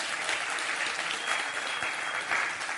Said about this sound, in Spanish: Un fuerte aplauso,